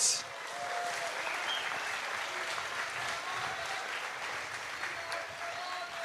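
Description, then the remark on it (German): Steady, encouraging audience applause for Leo Greimel fills the whole stretch, a dense, even patter of many hands clapping at a constant loudness with no voices rising above it. “Ja, vielleicht einen aufmunternden Applaus an Leo Absolut.”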